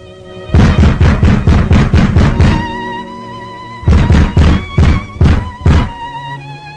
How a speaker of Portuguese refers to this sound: Porém, nas primeiras horas da manhã seguinte, um mensageiro apressado bate com alarde à porta da residência do senador.